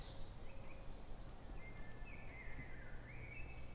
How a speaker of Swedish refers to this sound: Här har det varit mycket tätare och det är ju längre in vi går här nu desto mer fåglar har vi. Ja, det är härligt.